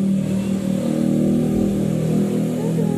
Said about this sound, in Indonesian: Ah, ada suara motor lagi.